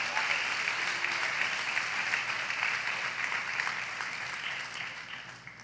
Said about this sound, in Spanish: No, la fuerte aplauso al Señor, hermano.